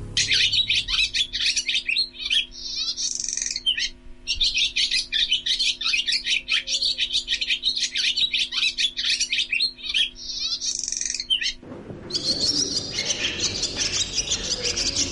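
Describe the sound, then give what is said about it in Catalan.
A swallow twitters in a rapid, continuous stream of high chirps and chattering warbles, lively, before the sound shifts near the end to a noisier, rougher outdoor texture. “És que hi havia la creença que Soroneta deia coses amb el seu cant.”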